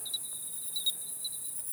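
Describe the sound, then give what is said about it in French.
At 11:05 pm, with the air at 22-23 °C and the ground slightly warmer, a bell cricket's calling song rings out as a steady, high, continuous trill, faint, with a few brief swells in loudness and no voices. “Et là, on entend le chant d'appel”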